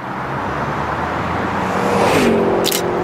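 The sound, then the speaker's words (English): A speeding car passes through an intersection on Oxford Street in Sydney at 10 o'clock on a Sunday evening, its engine and tyre noise building loudly over steady traffic rumble, with a falling engine tone as it passes and fades away. “The streets are pretty quiet, and I'm standing at an intersection that feeds more money into state revenue than the entire electorate of the Blue Mountains. And it's all because of speeding cars.”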